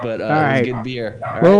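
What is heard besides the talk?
small dogs barking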